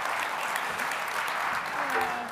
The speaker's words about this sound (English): I mean, if she sings good, can I get a hand clap if she sings good? I mean, come on.